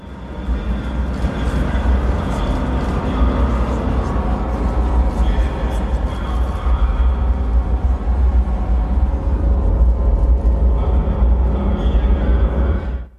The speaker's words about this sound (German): was ihr gerade gehört habt, das ist das Dröhnen der ersten Stufe der Proton M Rakete, die heute pünktlich um 10.31 Uhr von Baikonur gestartet ist. Und an Bord befand sich der ExoMars Trace Gas Orbiter.